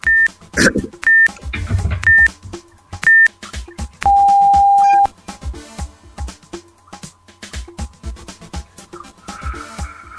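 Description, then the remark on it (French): A quiz countdown timer beeps: four short, evenly spaced high beeps about a second apart, then one longer, lower tone, followed by busy, clattering background sound. “il, y a, il y, a un décompte, ne te presse pas, parce que tu as une réponse, mon gars.”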